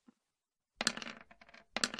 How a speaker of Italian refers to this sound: E tiro due dadi bonus in più.